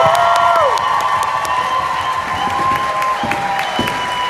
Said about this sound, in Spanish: Así que, no. No, vamos a aplaudir bien. Vamos a aplaudir.